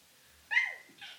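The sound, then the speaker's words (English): A single sharp sneeze bursts out after a moment of quiet, its breathy blast trailing off, followed by a soft exhale. “God bless you. Bless you. Oh, yeah, bless you.”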